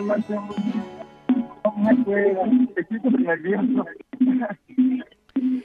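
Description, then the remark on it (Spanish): A radio plays loudly in the background of a thin, band-limited phone line, its music and voices blending with a caller's muffled voice into a continuous, cluttered sound. “Oye, bájala tu radio porque no te estoy escuchando nada”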